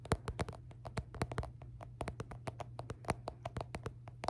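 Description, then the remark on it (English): Rapid, irregular clicks of someone typing an answer on a keyboard, fairly crisp, with a steady low hum underneath and no voices. “Just typing my answer real quick.”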